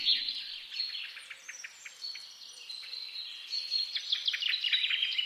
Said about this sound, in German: Äh, du hast aber auch noch ein längeres Geräusch dabei, glaube ich. Wir hören Vögel zwitschern